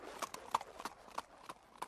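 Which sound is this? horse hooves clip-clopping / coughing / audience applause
horse hooves clip-clopping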